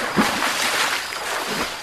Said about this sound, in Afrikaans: Sê die seekoei en duik weer in die water in.